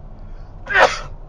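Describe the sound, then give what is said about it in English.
A single sneeze bursts out sharply and fades within a fraction of a second, with no talking around it and only a faint low hum in the background. “oh, bless you.”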